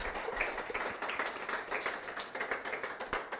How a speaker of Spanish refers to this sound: Gracias. Realmente los aplausos son para nuestro Padre Celestial.